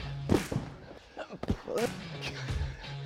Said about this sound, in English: Come on, six punches straight off.